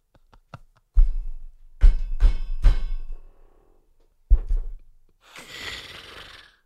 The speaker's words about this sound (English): whether there's that humming again. Is that a power drill?